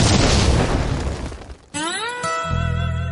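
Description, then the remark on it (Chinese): A loud explosion sound effect: a broad, roaring blast that fades over about a second and a half, then a bright, rising electronic tone over a steady low hum. No one speaks. “瞬间爆炸！”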